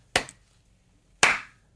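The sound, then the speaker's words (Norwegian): A person gives two sharp hand claps, spaced about a second apart, fairly loud with a brief ringing decay on the second, in otherwise quiet surroundings. “At jeg klapper? Ja, for, klapper.”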